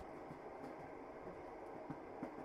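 A train rolls steadily along the tracks at night, a constant low rumble and hiss with faint, regular clacks of wheels over rail joints, heard from inside a carriage with no voices.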